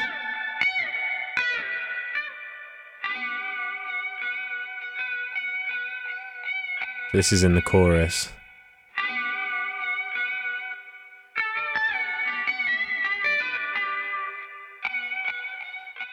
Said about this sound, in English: Let me play um, some other guitar parts on this track.